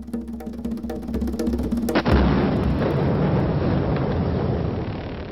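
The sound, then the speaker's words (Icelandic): A massive explosion erupts after a tense tonal lead-in as the Taliban blow up the two giant Buddha statues in Bamiyan, Afghanistan, followed by a long, thick roar of rumbling debris and crumbling rock that stays loud for several seconds. No one speaks. “Stjórn Talibana í Afganistan hefur byrt myndir sem sína þegar risastitturnar tvær í bæman voru sprengtar.”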